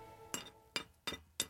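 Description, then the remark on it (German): Two small size rings for a clothes hanger clink together four times in quick, uneven succession, each a sharp, bright tap with a short ring, with no talking. “Das sind zwei Ringe. Ich weiß nicht, wie ich das erklären soll. Das sind Größenringe.”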